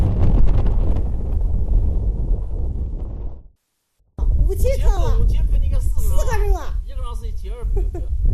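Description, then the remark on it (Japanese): Strong desert wind roars and buffets steadily for a few seconds, cuts out briefly, then keeps rumbling underneath a person speaking, at a tree-planting work site under a clear blue sky with small sandstorms. “マイクロ的なその砂嵐がありますが全体的には空がすごく青いし空気も透き通っていて綺麗です、えー、かなりこうやって風が吹いていますけれども”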